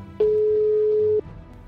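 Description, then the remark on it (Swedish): A single steady ringback tone on a phone line lasts about one second, then stops, leaving a faint low background hum. Nobody picks up or speaks. “Jag chansar och ringer henne.”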